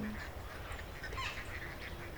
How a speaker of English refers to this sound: Oh, the ducks! Okay, let's see if I can count you all today. One, two,